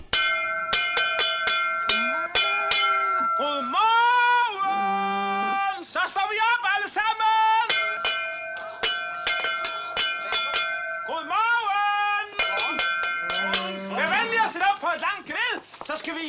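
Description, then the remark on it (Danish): Clanking cowbells ring over and over in a busy, uneven jangle, with drawn-out lowing calls of cows rising and falling between them, steady throughout. “Køerne står allerede og kvier sig.”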